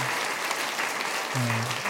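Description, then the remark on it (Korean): A church audience at Saemunan Church claps steadily to welcome visitors, a dense, even wash of many hands at moderate loudness, with a low sustained tone surfacing briefly near the end. “우리 큰 박수로 다시 한번 환영하겠습니다.”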